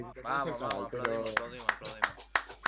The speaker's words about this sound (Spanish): yo quería terminar con un aplausito claro, terminamos en lo alto.